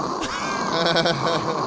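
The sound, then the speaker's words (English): A single person vocalizes a sustained, rasping whoosh with a wavering pitch and hissy bursts to imitate a blowtorch, fairly loud, lasting under two seconds with no other speech. “that is the sound of the blowtorch.”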